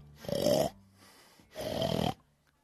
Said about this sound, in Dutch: En die vader maar snurken.